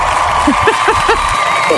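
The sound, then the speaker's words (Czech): A crowd applauding steadily for about two seconds, a dense wash of clapping with a few rising voiced whoops and cheers mixed in. “Ještě dám vám tady potlesk.”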